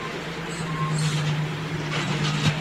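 A heavy truck passes by, its engine a steady low drone under broad road noise, with a brief hissing surge near the end. No one speaks.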